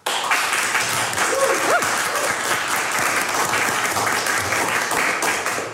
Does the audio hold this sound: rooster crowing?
no